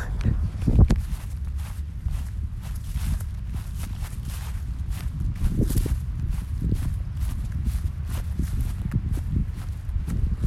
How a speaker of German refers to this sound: ist noch ein kurzes ASMR von im Gras laufen.